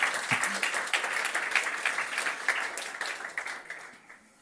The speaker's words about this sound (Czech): Takže já vám děkuju a klaním se a já vám tleskám. jo, určitě, zatleskejte lidem kolem sebe.